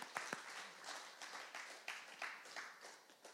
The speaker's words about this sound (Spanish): No un aplauso al Señor.